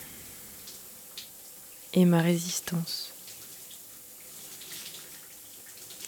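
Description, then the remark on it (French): Warm shower water runs in a steady hiss with faint spattering throughout, while a voice briefly speaks over it partway through. “Passer quelques minutes de plus sous la douche, dans la chaleur.”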